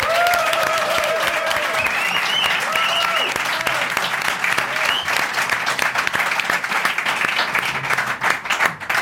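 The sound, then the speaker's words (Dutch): Sustained audience applause for a European beach race champion, a dense wash of many hands clapping at a steady loud level, with faint cheers and voices rising through it and a few sharper claps toward the end. “En twee, eh, het applaus van het publiek, want je bent Europees kampioen strandrace.”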